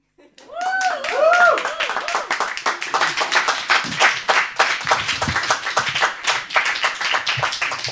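An audience breaks into steady, dense applause lasting the whole stretch, many hands clapping at once, with a few high rising-and-falling whoops or whistles near the start.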